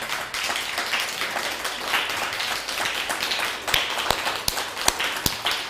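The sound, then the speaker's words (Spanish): An audience applauds with steady, dense clapping throughout, a crowd's rapid overlapping claps, with a few sharper, louder individual claps standing out toward the end. “Así un fuerte aplauso, por favor.”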